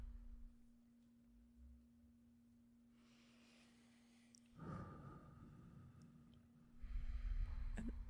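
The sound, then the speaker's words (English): Slow, deep breaths: a long airy inhale through the nose, then a louder, rushing exhale through the mouth, repeated once more, over a faint steady hum with no talking. “Just keep breathing in through your nose, out through your mouth.”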